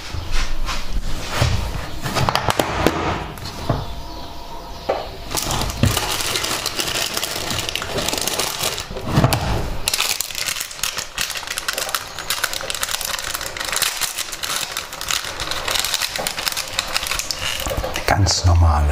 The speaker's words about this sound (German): Dann packe ich schon mal meine Pads aus.